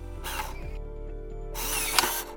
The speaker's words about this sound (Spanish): So the beeps you're hearing are real-time signals from the Neuralink in Gertrude's head. So this Neuralink connects to neurons that are uh, in her snout. So whenever she snuffles around and touches something with her snout, that sends out neural